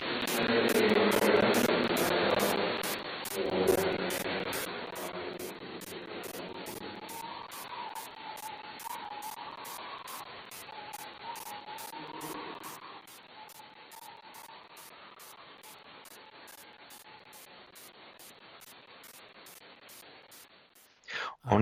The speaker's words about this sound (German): Das war, die Aufnahme stammt so aus der Dämmerung. Und wir wissen, dass da viele Vögel gewesen sind, großes Waldgebiet. Habe ich das mal in einer Gruppe von Ornithologen eingestellt. Und die haben uns sofort gesagt, das ist ein Waldkauz.